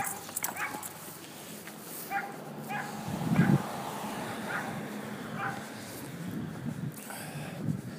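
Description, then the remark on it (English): A dog in a yard barks intermittently, a handful of short barks and yips spread over several seconds, against steady outdoor background noise. “Meanwhile, there's a a dog in a yard.”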